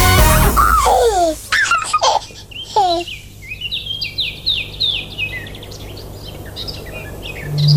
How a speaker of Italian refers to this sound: Ascoltiamoci la sigla, la posizione numero 8, ci sono i Teletubbies.